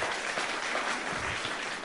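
An audience applauds an 87-year-old pastor who still preaches, many hands clapping at once in a dense, even wash of sound that holds at a constant level throughout, with no one speaking.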